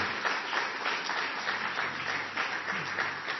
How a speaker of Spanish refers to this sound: Bueno, hermano, gracias a Dios por ellos y por esa hermosa familia y darle un fuerte aplauso por ellos.